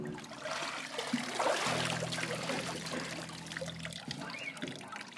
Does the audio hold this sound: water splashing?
yes